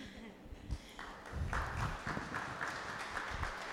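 A group applauds for a parent who volunteers to participate, steady scattered clapping rising after a quiet start, with no voices over it, lasting a few seconds.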